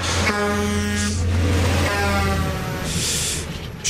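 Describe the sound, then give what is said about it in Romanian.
A heavy truck engine rumbles steadily, its deep droning hum holding for several seconds with bursts of hissing air brakes near the start and end. “Tirul de la Morning Glory a speriat generații de ascultători deja. Iată-l”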